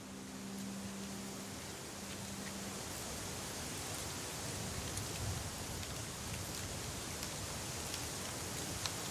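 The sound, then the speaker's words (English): Steady, hushed outdoor ambience in a eucalyptus plantation: a continuous soft hiss like wind moving through leaves, with faint scattered ticks and no birdsong or insect calls. “It's a eucalyptus plantation that exists just a couple of miles away from where we began.”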